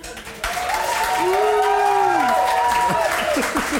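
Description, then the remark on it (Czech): An audience breaks into sustained applause to vote for the prosecution. The dense wash of clapping starts abruptly and holds steady, with a few high whoops and shouts rising over it. “Zatleskejte, kdo je pro obžalobu.”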